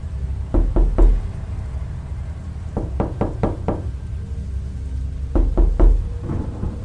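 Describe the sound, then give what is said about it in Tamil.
Knocking on a door, coming from a room's restroom, in three bursts: a quick trio, a longer run of about five raps, then three more. The knocks are sharp over a low, steady rumble. “யாரோ கதவை தட்டுற சத்தம் கேட்குது ஆனால் அந்த சத்தம் எங்கேருந்து கேட்குதுன்னா அந்த ரூமில் இருக்க ரெஸ்ட் ரூமில் இருந்து வருது”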